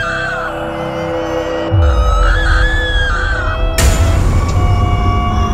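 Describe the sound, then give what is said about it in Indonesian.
A possessed woman screams as if in pain when an elder grips her big toe, loud and drawn out, her wavering cry held over a heavy low rumble, with a sudden harsh burst of noise partway through. “Karena yang dia lakuin, cuma megang jempol kakinya, tiba-tiba dia teriak kayak kesakitan.”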